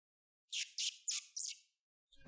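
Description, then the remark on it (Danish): A small hedgehog stuck in a net in the bushes outdoors, on a day without wind or rain, squeaks four times in quick, even succession, each call shrill and raspy, followed by a short pause and a brief clunk at the very end. “Lyden kommer fra buskene lidt længere fremme. Nysgerrigt bevæger Geo sig mod lyden og ser et lille pindsvin, der sidder fast i et net.”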